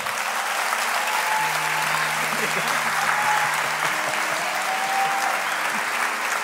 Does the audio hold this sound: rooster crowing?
no